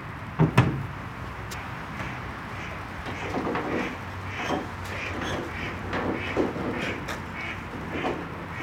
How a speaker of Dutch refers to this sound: vliegen een paar paniekerige eenden voorbij.